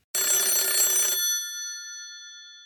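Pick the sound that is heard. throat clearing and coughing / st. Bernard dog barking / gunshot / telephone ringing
telephone ringing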